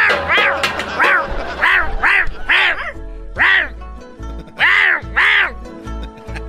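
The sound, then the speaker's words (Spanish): A person imitates a barking dog, jokingly 'barking in Chinese', letting out about nine quick, nasal yelping barks in an uneven rhythm, loud, with no other talking. “Estoy ladrando en chino.”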